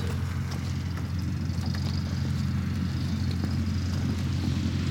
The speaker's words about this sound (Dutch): Het vliegtuig eh, wordt naar buiten gereden vanuit de, de hangar, klaargemaakt voor de vlucht naar uh, Rauwveen.